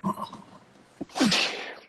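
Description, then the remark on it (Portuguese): A single loud sneeze from an allergy: a brief vocal sound and a quick catch of breath, then a sharp, hissing burst that trails off over about half a second. “Nossa, Saúde. deu uma alergia, uma alergiazinha.”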